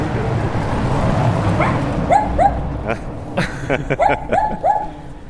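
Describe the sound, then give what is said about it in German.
A small dog behind a gate, its snout poking out under the gate, yaps in a quick, excited series of high, sharp barks over a steady low street rumble. No one speaks. “Guckt unter dem Tor quasi so ein kleiner, kleines Hundemaul durch.”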